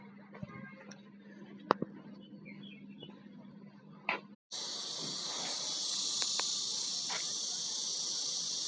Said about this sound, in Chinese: 这是树上蝉的声音。